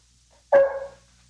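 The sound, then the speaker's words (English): A dog named Roy lets out one sharp, loud bark, ringing briefly before fading into quiet. No one speaks. “Which, of course, makes Roy bark again.”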